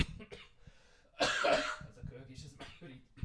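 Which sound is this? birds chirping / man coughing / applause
man coughing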